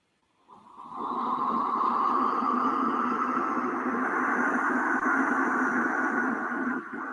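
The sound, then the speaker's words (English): A third wind whistle is blown in one long, steady, breathy note lasting about six seconds, a hollow airy tone with a rushing edge that holds even and loud before stopping abruptly. “And with this third wind whistle, we're going to create an energy bubble around us”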